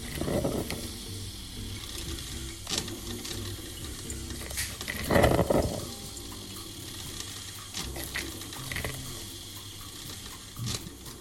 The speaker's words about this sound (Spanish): Me gusta prepararme café. Tengo una cafetera eléctrica y ahora vas a escuchar cómo suena.